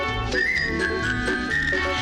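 A bright, clear whistle carries a cheerful melody, sliding smoothly between sustained notes, layered over a full, lively orchestral accompaniment with no voices.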